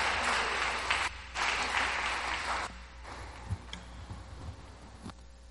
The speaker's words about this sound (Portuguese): Então, gente, vamos receber a professora com a salva de palmas, amém? Vamos honrar a vida dela.